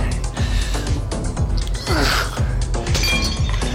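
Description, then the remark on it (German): Loud window glass shattering on a top-floor balcony, struck by a thrown potato, with a rapid series of sharp crashes and tinkling shards over nearly four seconds, along with low thumps. There is no speech. “Der dritte Wurf saß und es klirrte auch auf dem obersten Balkon.”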